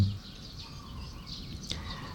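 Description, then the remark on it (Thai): Sparrows chirp softly as they chase each other around planted trees in the late morning, a scattering of quick, overlapping tweets over a low outdoor hum, with one sharper, brighter chirp standing out near the end. “นกก็มาเล่นกันเคยเห็นแมวหยอกล้อกันนะนกเขาก็หยอกล้อกันนะนก น่าจะเป็นนกกระจอกเขาก็วิ่งไล่ กันส่งเสียงกัน”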